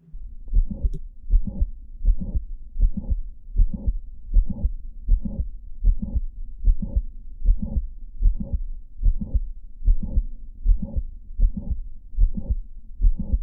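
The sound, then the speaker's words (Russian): A steady, regular heartbeat heard through a stethoscope, each beat carrying a sharp mitral click followed by a late systolic murmur, repeating about a dozen and a half times with no voices. “Щелчок, а за ним, конечно, систолический шум.”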